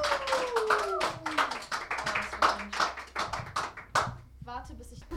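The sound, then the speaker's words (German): Dense clapping from a crowd at a poetry reading fills the whole stretch, a steady burst of applause with overlapping hand claps, while a voice rises and falls over it and a few whoops cut through near the end. “Perfekt, dann fetten Applaus”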